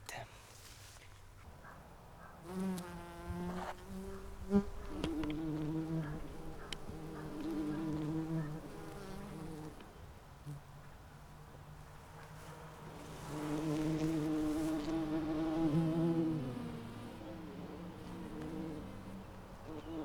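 Small bees buzz, their humming drone rising and fading as they move about, growing loudest for a few seconds near the end before easing off again.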